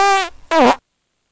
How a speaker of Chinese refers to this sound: 小绿人们都非常喜欢彼得，因为他不但是绿色的。还一直放屁，这多不可思议呀！